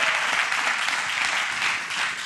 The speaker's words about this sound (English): And to our live studio audience, can we hear a greeting for our listeners? Awesome.